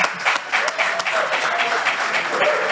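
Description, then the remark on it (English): Steady audience applause for guests thanked for joining on stage fills the whole stretch, a dense wash of many hands clapping at an even, sustained level with no pause, some faint voices mixed in underneath. “Can you get a round of applause?”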